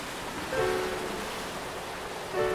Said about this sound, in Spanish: Estuve años planeando este viaje y ahora me parece mentira estar acá, con los pies descalzos amasando la arena caliente, escuchando este rugir de las olas rompiendo contra la orilla y el viento.